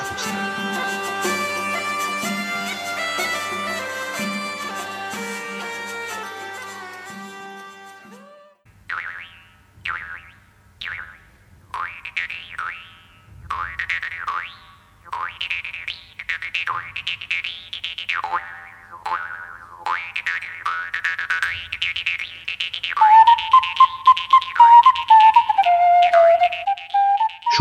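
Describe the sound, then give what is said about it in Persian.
A small early-music ensemble plays: a bright, buzzing bowed tromba marina with viol and recorder, first sustained chords, then a lively rhythmic passage with a clear piping recorder line emerging near the end. “مجموعه صدایی شامل ترومبا مارینا، ویول و ریکوردر را دارید میشنوید و اون سازی که صدای تیزی داره ترومبا مارینا هستش”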